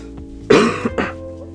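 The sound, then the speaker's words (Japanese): A loud cough bursts out in two harsh, raspy pushes, the first stronger, followed by a quieter trailing breath against a faint steady background hum. A person with a bad throat coughs on purpose. “すいません、今、咳が入ったと思うんですが、今実はわざと入れまして”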